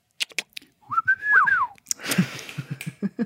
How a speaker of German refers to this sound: Und dann noch das Schnipsen dazu, ja. Warum machst du das immer? Das ist mein Markenzeichen.